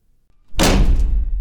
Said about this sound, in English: That's the sound of a door slamming in your face. That's the sound heard by many individuals living with a disability.